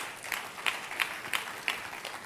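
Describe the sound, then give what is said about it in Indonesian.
An audience applauds in praise of God, with a steady wash of many hands clapping and sharper claps landing in an even rhythm roughly three times a second. No one speaks over it. “Tepuk tangannya yang meriah buat Tuhan kita.”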